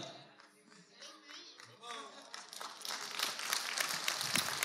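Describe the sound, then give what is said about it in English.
A crowd begins clapping, the applause swelling from scattered claps into a steady, dense patter that grows louder toward the end, with a voice briefly audible at the start. “No, don't clap.”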